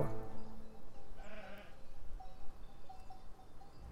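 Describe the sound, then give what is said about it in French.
Ewes bleat from a flock penned in an enclosure lower down, several overlapping calls in the first second and a half, followed by fainter, shorter bleats over a steady outdoor background. “Vous regardez au loin, euh, j'ai mon troupeau de brebis qui est parqué plus bas avec, et j'entends aboyer les patous.”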